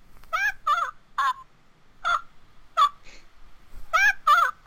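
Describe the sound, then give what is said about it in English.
A talking porg plush toy squawks in a rapid series of about eight shrill, warbling electronic chirps, fairly loud, with brief pauses between bursts and no talking. “but they had a porg, and I know you can't see the porg”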